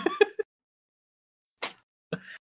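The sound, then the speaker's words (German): A male cat sneezes once, a quick, sharp, breathy burst, framed by a few other short, soft sounds in otherwise quiet surroundings. “Gesundheit, Kater.”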